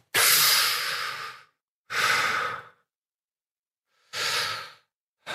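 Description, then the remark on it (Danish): Three long, breathy exhales through a wide-open mouth, each about a second long with a pause between, steady and relaxed, done as a breathing exercise with hips tucked under and belly relaxed, with a fourth breath just starting at the end. No talking. “Man skal skubbe sin, man skal skubbe sin øh, hofte ind under sig, slappe af i maven, lave sin mund sådan her, sådan meget bred, og så skal man sige”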